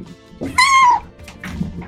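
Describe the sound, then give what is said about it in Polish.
A single drawn-out meow from a pet cat, with a bright, harmonic tone lasting about half a second, followed by faint rustling and low background noise. “Przepraszam Was bardzo mocno, ale tym razem e, mój kochany kotek postanowił uczestniczyć, że tak powiem, w audycji.”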